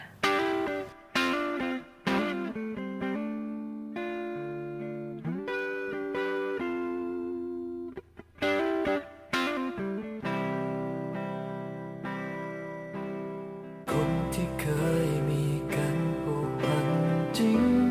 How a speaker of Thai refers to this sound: ช่วงนี้เราเบรกฟังเพลงกันแป๊บหนึ่งก่อนนะคะ